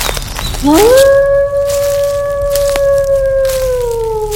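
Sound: gray wolf howling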